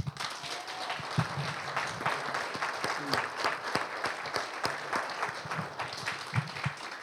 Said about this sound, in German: Ihr habt es echt super gemacht. Ihr seid ja jetzt nicht das erste Mal hier und ich denke auch nicht das letzte Mal. Und ich sage jetzt einfach mal, geben wir Ihnen nochmal einen richtigen Applaus.